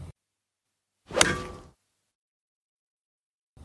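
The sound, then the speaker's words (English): A single swift whoosh of a golf club swing cuts through the air, rising sharply and trailing off within about half a second, surrounded by silence. “Hey, I'm actually just very quickly going to swing, and then I won't have to swing for a while.”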